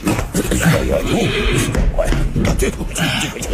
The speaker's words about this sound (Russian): Ну вот и лошадки.